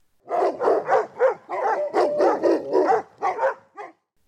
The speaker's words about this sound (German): Und wenn du vielleicht schon mal darauf geachtet hast, dann hast du vielleicht bemerkt, dass das Bellen ganz unterschiedlich klingen kann, je nachdem, wie ein Hund so drauf ist und was er uns sagen möchte.